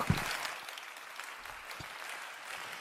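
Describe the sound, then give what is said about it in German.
An audience claps steadily, a dense, continuous patter of many hands at moderate volume with no voices rising above it. “Die werden dann einfach so, das, die sind konditioniert, bei diesen Worthülsen einfach sofort und instinktiv zu klatschen.”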